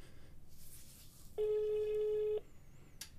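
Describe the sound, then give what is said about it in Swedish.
A single steady ringback tone from an outgoing phone call to a Norwegian number, lasting about a second, sounds clearly over a faint hiss of background noise, with quiet gaps before and after. “Det går signaler till”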